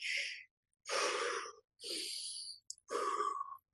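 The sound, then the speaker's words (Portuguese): Four deep, slow breaths, each a soft airy rush lasting under a second, separated by brief pauses, with no talking; a demonstrated breathing exercise for calming down. “e eu ir me acalmando com essa respiração.”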